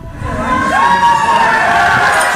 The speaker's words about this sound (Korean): 강추위를 뚫고 찾아온 관중들의 함성과 함께 소재환이 힘차게 출발합니다